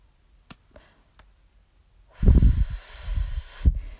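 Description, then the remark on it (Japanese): A few faint, sharp clicks like a lighter being flicked, then a long, breathy drag on a cigarette, smoke drawn deep into the lungs, and a hissing exhale of smoke, with no talking. “リクエストにお答えしてタバコ吸いますねってなんやねん まあいいですけど。”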